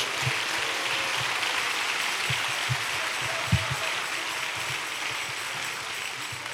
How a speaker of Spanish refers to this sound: ¿Cuántos le dan la gloria a Dios? le fuerte ese aplauso a la gloria de Dios.